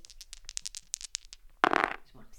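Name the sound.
dice being thrown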